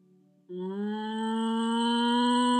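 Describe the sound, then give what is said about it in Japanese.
A person's voice imitates a cow's moo: a single long, steady, resonant low call that starts abruptly after a faint hum and holds loud for a couple of seconds. “牛は日本語ではもうもうですねこれも英語人にもうもうって言ったらもうもうもうもうって全然もうもうって言ってないじゃんってなりますけど英語ではムーですねまあどちらも M で始まってるのはまあ牛は”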